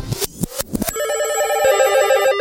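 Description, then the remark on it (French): A telephone rings with a steady, trilling electronic tone, fairly loud, preceded by a few short clattering bursts, before an after-sales service answering machine message. No one speaks. “On commence par écouter le message qu'elle a laissé sur le répondeur du SAV.”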